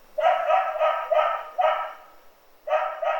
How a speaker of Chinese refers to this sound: 把自己变成一只兔子跳出来，再钻进披风里面变成一只小鸟，到观众座位那边飞一圈，回来舞台上再变成一只小狗汪汪叫，